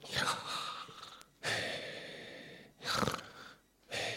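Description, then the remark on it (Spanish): A person imitates heavy human breathing, snoring a little, making four loud, raspy, snore-like breaths, alternating between drawn-in and pushed-out air, with no talking. “Era un sonido, como digo, similar al de la respiración humana y que suena como...”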